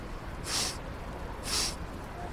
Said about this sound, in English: Now, inhale deeply, sniff the air. What do you smell?